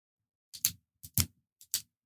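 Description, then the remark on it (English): A Pilot Precise retractable ballpoint pen is clicked three times at an even pace, each a sharp double click from press and release, crisp with silence between. “so it's the pilot precise, but it's clickable”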